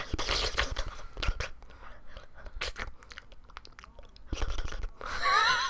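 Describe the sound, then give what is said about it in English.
Wet, smacking mouth noises, a quick irregular run of slurps and clicks imitating a tongue licking a phone screen, ending in a louder hissy squeal. “Just put the screen up against your tongue and just start.”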